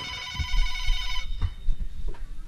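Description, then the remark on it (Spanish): A telephone rings with a steady, bright electronic tone for about a second and then cuts off, leaving low thumps and handling noise. No one speaks. “A ver, vamos a ver qué urgencia qué marcan ahorita.”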